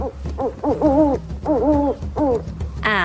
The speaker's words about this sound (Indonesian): Aku bukan burung berbintik, aku si burung hantu salju.